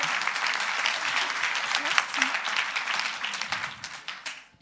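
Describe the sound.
At a poetry reading, an audience applauds a poet after a poem is recited. Steady, dense clapping holds at a fairly even level, with a few faint voices mixed in, before thinning out toward the end.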